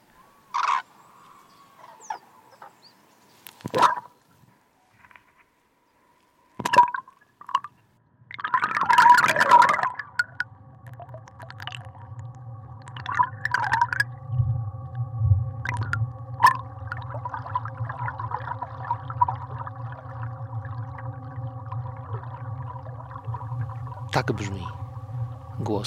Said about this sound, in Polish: Przyszedłem o wschodzie słońca nad Biebrze. W rzece umieściłem hydrofon, mikrofon, który nagrywa tę rzekę. ja słyszę, jak rzeka do nas mówi.